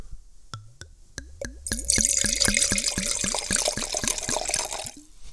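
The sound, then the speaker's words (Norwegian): Frappato wine glugs from a bottle into a glass in quick, rhythmic bursts with rising pitch as the glass fills, over a bright liquid splash; no one speaks. “Jeg må helle litt i glasset, jeg.”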